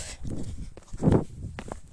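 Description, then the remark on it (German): Uneven thumping footsteps as a person mimics a horse's gallop, the beats bunching in quick groups with one heavier landing near the middle; no talking. “Warte mal, ich tue jetzt mal so, als wäre ich ein Pferd.”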